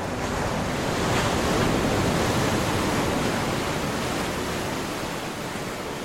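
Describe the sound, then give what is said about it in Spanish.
Ocean waves in the Catalina Channel, the sea between Santa Catalina Island and Long Beach off the coast of California, wash in a steady, continuous roar of surf, fairly loud, with a slight swell in the middle and no voices. “El canal de Catalina es el mar que separa a la isla de Santa Catalina, una isla rocosa en la costa de California, con la playa de Long Beach.”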